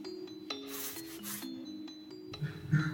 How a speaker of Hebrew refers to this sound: ישמיע לכם את הקולות של הזקן שלו. איך? עם היד? למיקרופון.